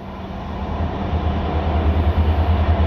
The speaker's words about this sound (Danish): Velkommen i toget til Nykøbing Falster. Vi fortæller om rejsen undervejs. Vi ønsker dig en god tur. Næste station, Herfølge.